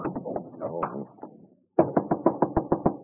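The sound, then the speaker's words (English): Someone knocks on a locked dressing-room door in two bursts: a looser flurry of raps, a brief pause, then a quick, steady run of about eight firm knocks. “are you in there? Open up.”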